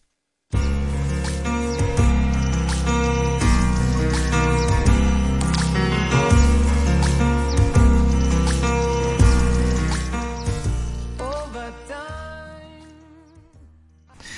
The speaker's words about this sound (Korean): 그 인트로에 물방울 소리가 난다고 네. 그게 뭔가 비 오는 날을 연상하게 했다고 이렇게 네. 말씀하셨는데 약간 그 아기들이 물총 갖고 막 노는 그런 느낌이라고 해야 될까? 막그 네. 그 웅덩이 같은 거에 첨벙첨벙 음. 장화 신고 노는 것 같은 맞아요. 그런 느낌이 드네요.